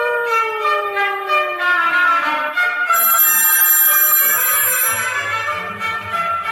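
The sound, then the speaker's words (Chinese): A telephone rings with a bright, electronic tone that slides downward at first, then settles into steady, layered chiming notes, fairly loud and continuous, with no talking. “我跟你说，我接到了一通很神秘的电话哦。”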